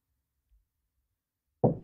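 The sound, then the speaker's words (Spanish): After a stretch of near silence and one faint low thud, a father knocks on a bedroom door, a solid knock, deep and resonant, fading quickly. No one speaks. “Al rato, papá llamó a mi puerta.”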